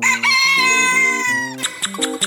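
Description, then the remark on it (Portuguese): A loud, drawn-out rooster-like crowing call, the call of the jeripoca, rings out over a short bouncing musical tune, then breaks into a few choppy bursts as the melody steps along. “O piu da Jeripoca.”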